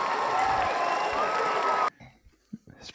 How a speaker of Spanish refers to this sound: A ver, tío, no me jodas, que te ibas a tirar ahí ocho minutos con, el, con la ovación, joder. Este señor lo merece.